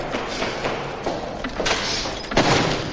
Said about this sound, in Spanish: El chico cierra la puerta con fuerza.